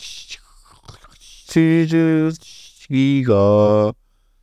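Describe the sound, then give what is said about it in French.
A voice imitates the noise of a dial-up modem connecting to the Internet: breathy hissing and clicks first, then two loud, buzzing, tonal bursts with a short gap between them, clear. “Avec des bruits de modem, vous vous souvenez”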